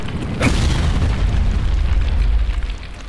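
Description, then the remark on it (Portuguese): A single loud gunshot cracks sharply near the start, followed by a heavy, booming low rumble that lingers for several seconds. No voices are heard. “Esses tiros não vão me afetar.”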